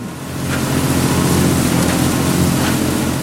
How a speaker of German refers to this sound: Eine Mitarbeiterin besprüht von einem großen Traktor aus die Milchkühe im Stall mit frischem Stroh.